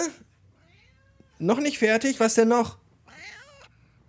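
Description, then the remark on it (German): A cat meows loudly in a long, drawn-out, wavering cry, followed by a shorter, higher meow, with a person speaking briefly before and between. “Das war die Katze.”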